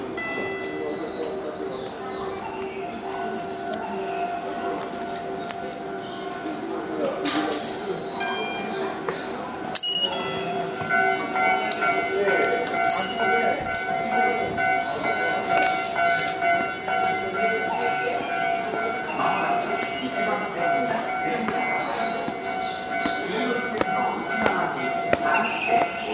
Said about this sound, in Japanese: まもなく一番線に電車が参ります黄色い線の内側に下ってお待ちください